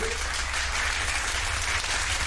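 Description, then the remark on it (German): Steady applause from a crowd, a dense continuous patter of many hands clapping at an even loudness with no voices standing out, sustained throughout. “das ist richtig Applaus.”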